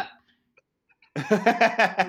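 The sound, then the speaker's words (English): After a near-silent pause, a voice imitates Biden coughing three words at a debate, a quick run of short, rhythmic, voiced cough bursts, fairly loud. “Well, uh, the obvious highlight is Biden coughing three words.”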